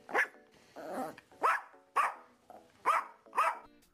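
A dog barks in a series of about six sharp, loud barks with uneven gaps, one rougher and more growl-like, with no voices present.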